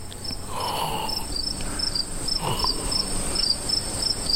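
A cricket chirps steadily in rapid, evenly spaced pulses, a thin high trill repeating throughout over a soft ambient background with no one talking.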